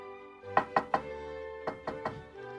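Two sets of three quick, firm knocks on the door of a hungry fox's home in a children's story, the second set a little softer, with a soft sustained musical tone humming underneath throughout.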